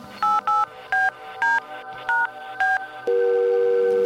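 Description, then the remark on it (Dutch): A quick series of six or seven touch-tone telephone beeps, each a short two-note chirp, followed by a steady ringing tone that continues to the end. Clear, with no one talking. “Je kunt hem gerust eens bellen. Ik belde.”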